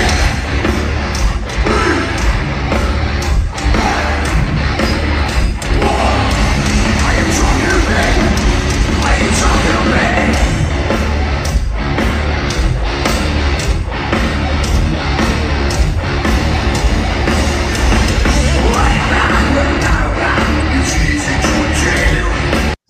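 A loud, dense wall of live heavy metal plays continuously, with distorted guitars, pounding drums and a singer yelling over the roar of the band and crowd.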